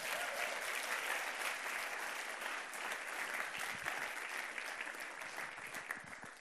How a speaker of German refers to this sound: Geben wir doch nochmal einen großen Applaus. Danke.